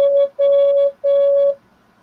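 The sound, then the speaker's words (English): Slowed-down Morse code tones encoding a number for a puzzle: a short beep followed by two longer ones, each a steady, clear, buzzy pitch, loud, with no other sounds around them. “When you push the button, so there's like radio chatter and then In Morse code, and then you're going to hear some Morse code. And it's three numbers.”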